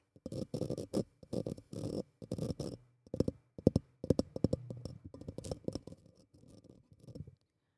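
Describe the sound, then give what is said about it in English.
Crackly paper sounds: a few longer tearing rips at first, then a run of quick, irregular crinkling and crunching as the paper is balled up, with no voices. “just ripping paper. I'm crumpling it up.”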